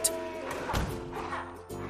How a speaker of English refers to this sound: She tried to get some sleep, but every time she heard the distant stomp of the chocolate monster, it would interrupt her dreams, which weren't at all sweet.